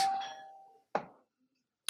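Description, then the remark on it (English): A doorbell chimes with a clear ringing tone that slowly fades, then two more short, sharper strikes follow about a second apart. No one speaks. “Doorbell did ring.”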